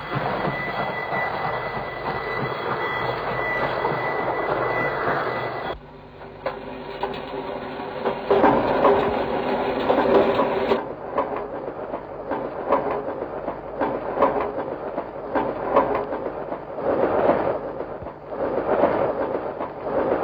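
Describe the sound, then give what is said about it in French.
Train sounds recorded in 1948, spliced together: loud rumbling, rhythmic wheel clatter and hissing, with abrupt cuts between segments, like a collage of railway noise. No one speaks. “Il enregistrer des, des, des, trains, probablement dans des gares ou des trucs comme ça.”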